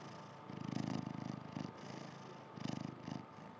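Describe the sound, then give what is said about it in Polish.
A cat purrs softly, a low rumbling vibration that swells and fades in rhythmic breaths, with two stronger surges and no voices. “Kocie, proszę zamrucz.”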